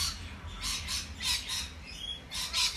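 Several birds chirp and squawk outdoors in quick repeated bursts, fairly faint, over a low steady rumble of background noise.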